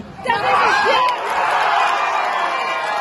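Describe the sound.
Football fans in Rothenburg erupt in loud cheering as Germany scores the equalizing goal in a women's European Championship match, a sustained roar of many voices with shouts and whoops that rises sharply and stays strong throughout.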